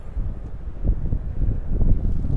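A low, steady rumble of an airplane passing overhead at night, a broad roar that holds throughout and swells slightly, with no voices.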